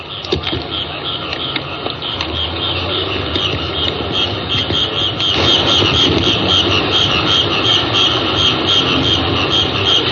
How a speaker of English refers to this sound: Now here's the night sound. This is this is ten o'clock at night, maybe two in the morning. I don't recall exact, but hear the sound of the Thai night. Bring it up.